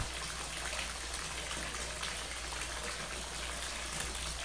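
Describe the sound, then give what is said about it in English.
Water runs steadily from a faucet into a bathtub, a constant gushing splash with no pauses and no voices. “I reach over and turn off the faucet.”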